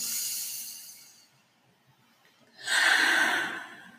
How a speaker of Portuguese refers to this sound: protegidas e guiadas pelas forças divinas, por nossos mestres e amparadores, respirando fundo.